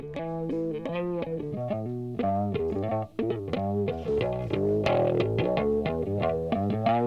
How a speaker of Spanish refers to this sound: La audiencia no lo está viendo, pero no saben cómo está disfrutando este muchacho en el estudio esta, esta parte, esta intro de bajo. Buenísimo.